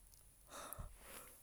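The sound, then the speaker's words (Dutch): A single stifled, breathy sound, half yawn and half cough, muffled, with a soft throaty catch in the middle before it trails off into quiet breathing. “nou, een combinatie tussen een gaap en een hoest, maar het was het net niet.”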